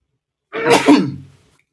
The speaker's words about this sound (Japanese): くしゃみが出た。